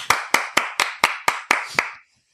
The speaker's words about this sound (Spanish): Don Pedro Romero Varo, el primer aplauso de la temporada, vaya por él